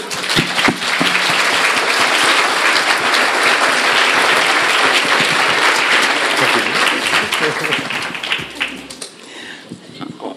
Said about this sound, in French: si on peut les applaudir.